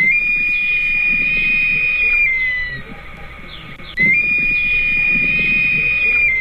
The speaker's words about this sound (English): It's a great black hawk.